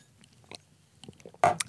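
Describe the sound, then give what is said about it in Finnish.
Quiet wet mouth sounds and a soft slurp of water being sipped, ending with a sharper, louder swallow or clink near the end. No talking. “Ryyppään tästä vettä.”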